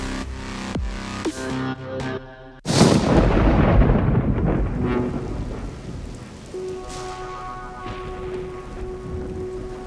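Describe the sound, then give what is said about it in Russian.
A sharp, loud thunderclap breaks out a few seconds in and rolls into a long, deep rumble, with steady rain pattering throughout and no voices, during a night thunderstorm with repeated lightning strikes over the Transylvanian farmstead of Dyrzhil. “Гремел гром, молнии били одна за другой, раскалывая надвое стволы вековых буков, помнивших еще правление Фердинанда.”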